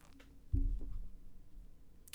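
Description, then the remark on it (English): A quiet sip of a light beer followed by a soft gulping swallow, with a low muffled thump partway through and near-silence around it. “Ah, it's good beer.”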